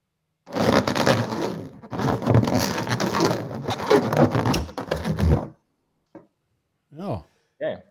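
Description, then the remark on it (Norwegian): A balloon being handled: about five seconds of dense rubbing and crackling, a pause, then a few short, high, wavering squeaks as fingers drag across the rubber. “Siste, siste, siste Jensan. En ballong.”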